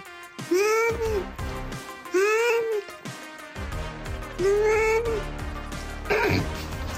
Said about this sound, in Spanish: ¿Qué tal este gato? Ahí lo escucharon, ¿eh? Claramente dice, no mames.